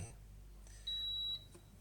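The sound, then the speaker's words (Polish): An electric stove with no pot on it gives a single sharp, high-pitched electronic warning beep lasting about half a second, because it will not heat without a pot, standing out clearly above a low, steady background hum. “ale kuchenka przez cały czas piszczy, ponieważ ty widzi garnka na sobie i nie będzie grzać.”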